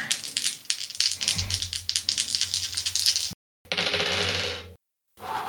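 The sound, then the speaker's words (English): A rapid clatter of three ten-sided dice: about three seconds of sharp rattling clicks as they're shaken, then a dense tumbling burst as they spill and settle. No voices. “Let's roll some dice. I'm gonna roll 3d10.”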